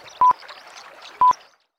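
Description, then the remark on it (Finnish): Two short, bright electronic beeps of the Yle radio time signal, about a second apart, ring out over faint background hiss and murmur, a crisp time-signal pattern that then falls silent. “Nyt aikamerkki.”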